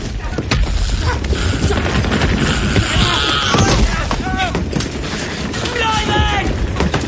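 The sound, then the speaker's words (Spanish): Loud, chaotic battle noise as a soldier shoots one German and grapples with a second: sharp gunshots and booms crack over a constant heavy rumble, while strained shouts and grunts of the struggle rise above the din. “Melis dispara al primer alemán y se abalanza sobre el segundo.”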